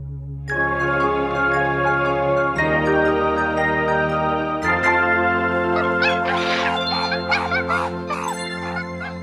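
A loud alarm sound effect rings out for several seconds, sustained buzzy tones shifting pitch in a few abrupt steps, with a flurry of higher chirping blips layered on toward the end. No one speaks.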